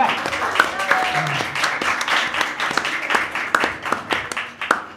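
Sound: audience applause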